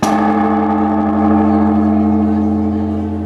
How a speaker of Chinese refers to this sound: 在日本东京增上寺院内，僧侣和民众轮流用木杆敲击大钟，敲响新年的钟声。